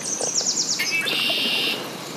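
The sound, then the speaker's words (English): Birds chirp in quick repeated high notes at the Missisquoi National Wildlife Refuge, a wetland refuge for migratory birds, then one bird holds a bright buzzy trill for nearly a second, with no voices and faint background hiss. “The Missisquoi National Wildlife Refuge was created in the 1940s as a habitat for migratory birds, and there are birds everywhere.”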